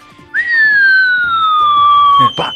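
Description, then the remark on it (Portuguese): A voice whistles a long, loud descending tone in imitation of the cartoon sound when a character falls, sliding steadily downward for about two seconds, ending with a short breathy burst. “E não só nisso, mas os detalhes, por exemplo, se você tá andando num lugar e ele cai, aí ele faz aquela, aquela coisa Sim.”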